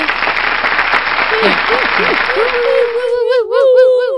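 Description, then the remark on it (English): Dense, steady applause fills the first three seconds while a voice lets out rising whoops over it, then the clapping stops and a drawn-out, wavering cheer carries on alone. “So let us all give a big warm round of applause”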